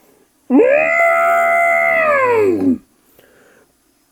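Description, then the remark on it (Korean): A single loud elephant trumpet, blown through its long trunk, blares for about two seconds, brassy and sustained, swooping up at the start and sliding down as it cuts off. No voices accompany it. “그야 이 기다란 코지 이렇게 나팔도 불수 있지 있구 말이야.”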